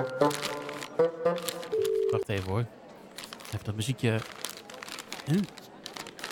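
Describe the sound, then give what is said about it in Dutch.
Crumpled paper crackles and rustles in short, close bursts as it is handled and unfolded, with a person talking over and between the crinkling. “Ja, ja dit is een beetje verfrommeld, want eh, ja, ik, eh, ik, eh, ik, ik, ik, had, ik had een beetje een fles water over me heen gegooid onderweg.”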